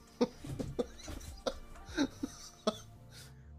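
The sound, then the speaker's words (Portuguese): Several sharp, abrupt sneezes burst out in quick succession, each a short explosive puff of breath, with brief murmuring sounds in between. “Eita, saúde.”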